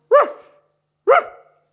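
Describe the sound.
A man's voice imitates a dog with two loud woofs about a second apart, each a short harmonic bark trailing off quickly, with silence around them and no other talk.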